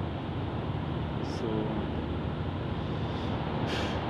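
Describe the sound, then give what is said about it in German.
Steady, dense rumble of road traffic fills the scene, a constant low roar with occasional brief hissing swells as vehicles pass. “Oh mein Gott, hier ist gerade so viel Verkehr.”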